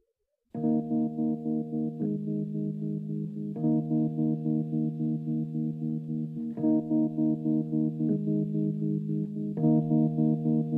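A pop song's instrumental opening plays: steady, rich keyboard-like chords pulse in an even rhythm, shifting harmony every couple of seconds at a constant, moderate loudness, with no singing yet.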